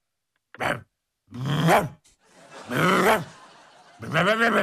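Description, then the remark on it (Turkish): A person imitates wild dogs barking and yapping as they play with each other, four voiced bursts of varying length with short pauses between them, fairly loud, with no other sounds. “Sağ tarafta görmüş olduğunuz vahşi köpekler birbirleriyle oynuyorlar. Rev, rev, rev.”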